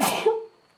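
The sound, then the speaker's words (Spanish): A single sharp sneeze or cough: a loud, breathy burst of noise that ends in a brief voiced tail, then fades into quiet. No talking is heard. “Salud. Perdón, hace frío.”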